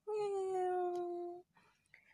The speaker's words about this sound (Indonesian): Kucing ini berwarna kelabu keputih-putihan dengan mata berwarna biru tua yang sangat indah. Bila ratu mengulurkan tangannya yang putih untuk membelainya, si kucing kecil segera memberikan punggungnya sambil mengeong.